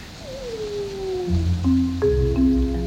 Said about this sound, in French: C'est un hurlement, on va dire, classique de loup. Et il n'y a pas de réponse pendant un bon moment.